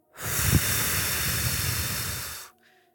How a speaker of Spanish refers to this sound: Exhala.